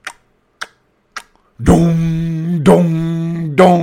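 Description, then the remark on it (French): An old clock in an old country house ticks three times, crisp and evenly spaced, then gives way to loud, deep ringing strikes that repeat three times and sustain between blows, with no talking. “Tu avais euh, l'horloge dans les vieilles maisons de campagne. T'entendais.”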